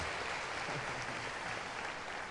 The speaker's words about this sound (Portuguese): So give yourselves a hand for being an awesome church.